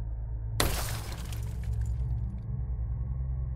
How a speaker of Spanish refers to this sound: Justo cuando estaba conduciendo en el camino de cemento, sentí algo duro golpear el parabrisas trasero, enviando cristales rotos al asiento de los pasajeros.